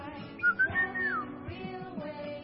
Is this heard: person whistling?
yes